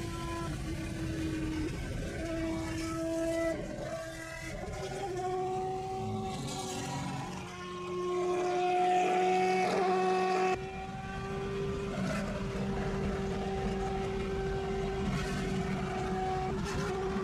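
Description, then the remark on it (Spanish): A GP2 race car engine roars as it accelerates at full throttle, with a strong, buzzy harmonic tone, its pitch stepping up through several rises before holding a steady high drone. It is loud and continuous, with no voices. “A ver, creo que tenemos audio, a ver si por ahí se alcanza a escuchar el ruido que hace el GP2.”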